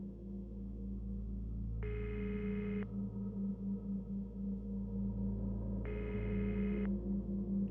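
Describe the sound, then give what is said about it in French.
A phone line rings out twice after a woman dials a number on her phone: two steady, buzzy ringback tones, each about a second long, separated by a pause, over a low constant hum. “Elle pose son téléphone, hésite, le reprend et compose un numéro.”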